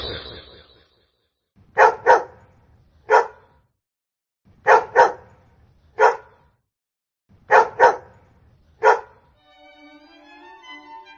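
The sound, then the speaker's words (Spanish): Several dogs bark in sharp bursts, often in quick pairs, a few seconds apart at close range, with a low background rumble between them; a brief tonal chime follows at the end. “Es aquí donde las perras madres y perros pasan unas vidas solitarias, en jaulas pequeñas y sucias, reproduciéndose constantemente.”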